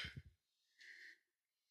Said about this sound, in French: excusez-moi de, de bailler comme ça.